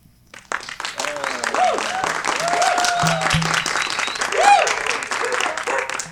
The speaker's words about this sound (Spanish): Eh, bienvenidos a este último episodio de la segunda temporada de Los Mijines. Un aplauso, por favor.